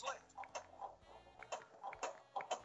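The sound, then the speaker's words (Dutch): Sharp plastic clicks from the shoulder buttons of Nintendo Switch Joy-Con controllers, pressed to work the flippers in a pinball video game, coming in irregular pairs and bursts, fairly loud, with some faint background sound between presses. “Laten luisteren of laten horen hoe die, hoe die, die, die flippers klinken.”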